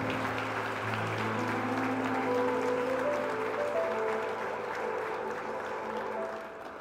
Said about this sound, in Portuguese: Aplaudam o Senhor, igreja, pela vida desses estão aqui.